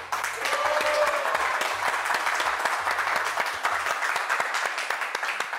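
A talk-show audience bursts into sustained applause for guest footballer Carlos Zambrano, a dense wash of many hands clapping steadily for several seconds without a break, with a few faint low tones humming underneath.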